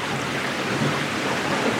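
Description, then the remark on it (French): A boat's hull slamming into waves while sailing close-hauled and accelerating, heard as a dense, steady rushing roar of water with no distinct separate slams, fairly loud, with no voices. “Au près, euh, quand ça accélère, euh, ben, ça n'a rien à voir puisque le bateau il tape dans la vague.”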